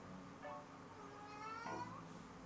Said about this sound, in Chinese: 大家应该有听见猫的声音吧？这就是它平常在向我撒娇时候的声音。